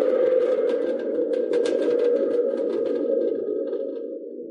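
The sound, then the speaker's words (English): A wooden thunder tube rumbles with a steady, booming, springy roar, its metallic reverberation crackling on top and slowly fading over a few seconds, with no talking. “This is a thunder tube.”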